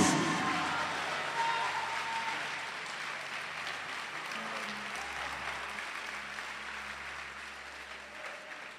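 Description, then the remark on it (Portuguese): An audience applauds the Lord steadily, a dense wash of many hands clapping at once that holds at an even level throughout, with a faint low hum underneath and no talking. “Joga uma cadeira para cima, ou dá um salto e aplauda o Senhor se você está nisso.”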